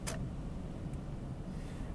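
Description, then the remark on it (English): A steady, low rumbling drone fills the inside of a moving car, with a brief soft click or rustle near the start and no one talking. “Well, right now, as I'm steering the car, it's a little bit stiff and sore”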